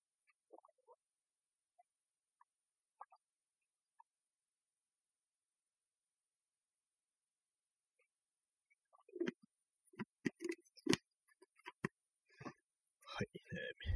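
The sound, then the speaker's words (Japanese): Someone gulps about 200 milliliters of water from a bottle in one go, a run of wet, throaty swallows in a quick steady rhythm, after several seconds of near silence broken by faint clicks and bottle handling. “ボトルで水を飲みます。”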